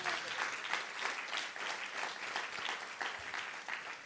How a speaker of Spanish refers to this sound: Alguien que lo crea y le dé un aplauso fuerte a Jesús.